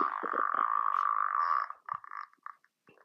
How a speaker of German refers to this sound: Ich habe mir tatsächlich den Anfang, als ich das Furzkissen bekommen habe, gemerkt. Achtung. Das war der Anfang, als ich das erste Mal raufgedrückt habe.